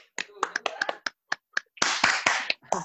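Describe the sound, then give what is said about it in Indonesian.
A quick, uneven burst of sharp handclaps, a few people clapping loosely to welcome a guest, then a denser, noisier flurry of sound that carries on to the end. “tepuk tangan dong, Tepuk tangan.”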